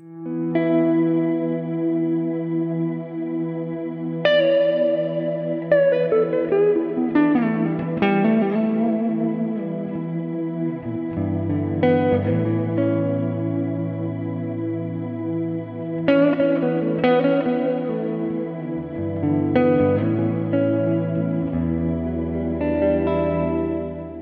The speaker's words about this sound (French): dans une de ses vidéos, il fait la démonstration d'un de ses presets personnels pour le logiciel Guitar Rig, dans lequel il utilise le freeze, et voici ce que ça donne.